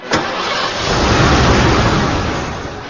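A car engine cranks and catches with a sharp onset, then settles into a loud, steady rumble that swells slightly before easing off. No one speaks.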